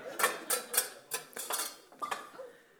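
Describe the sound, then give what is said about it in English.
Pots and pans clatter and bang in a kitchen as Martha gets a meal ready, a quick irregular series of sharp metallic crashes and clinks, moderately loud, with no voices. “started crashing about with her pans.”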